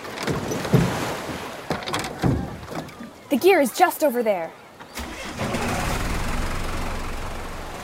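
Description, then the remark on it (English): The motorboat Water Woman's engine sputters and knocks, then settles into a loud, steady rumbling drone on the ocean in Hawaii, carrying scuba gear, with a person speaking briefly partway through. “You can put on the gear while I drive the boat.”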